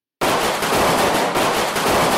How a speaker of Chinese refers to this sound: 整个村子的鞭炮声响彻云霄，传到天空中，震动着大地，一路传到深山里的年兽妈妈耳朵中。